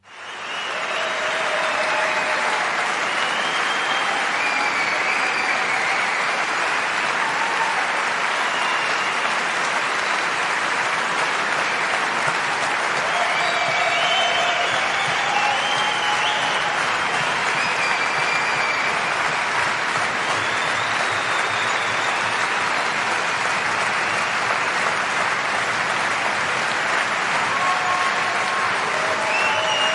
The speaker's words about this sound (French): Alors, en souvenir du bon vieux temps, elle vous propose néanmoins d'écouter non pas une minute de silence, mais une minute de bruit avec des applaudissements de fin de spectacle. Émotion garantie.